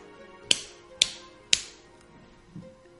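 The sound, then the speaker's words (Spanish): Three sharp, forceful hand slaps land in an even rhythm about half a second apart, crisp, followed by a much softer tap; no one speaks. “Es de un golpe en la mano, muy fuerte, con cara de eh, golpe, golpe, golpe.”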